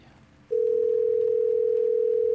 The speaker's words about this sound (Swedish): Jag trycker på grön lur. Du hör den första signalen gå fram. Den andra. Typ den tredje.